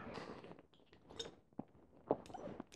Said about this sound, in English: so that you guys can see my funny face when I chew up the capsuled ingredients of products as opposed to taking them the way you're supposed to, which is just swallowing the little capsule.